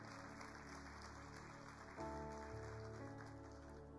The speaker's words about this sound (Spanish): Vamos a darle un fuerte aplauso a Jesús.